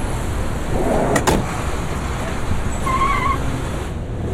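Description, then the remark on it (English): A car door clicks open and thumps shut in two quick, sharp knocks as someone gets out of the car, followed by a faint squeak, all over a steady hiss of outdoor background noise. “Can you open a door first?”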